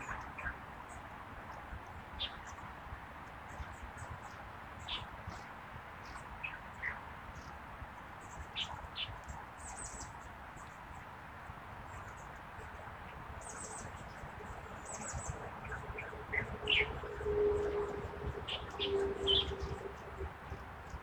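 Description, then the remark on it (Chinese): Long-tailed tits calling: many thin, high-pitched notes and short buzzy trills, scattered and overlapping throughout, over a steady low background hum, with no one speaking. “好，现在已经是八点二十三分了，在一片猕猴长尾山雀的叫声当中，结束我今天的播客喽。”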